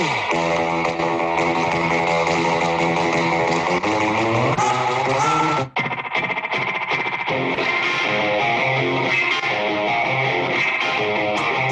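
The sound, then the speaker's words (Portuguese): A loud, distorted electric guitar drives a fast punk rock song with a twangy surf-rock flavor, playing steady chords before a brief break and a crashing return, with no vocals. “Essa vibezinha de surf, muito parecidos lá, que eu sei que não é totalmente idêntico, mas não lembra, cara.”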